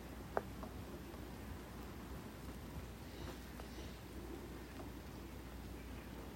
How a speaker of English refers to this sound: letting the sound of the rain take me there right now.